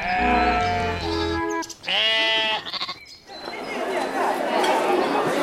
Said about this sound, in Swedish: Nu lyssnar vi på hur det var på fårfesten istället. Det gör vi.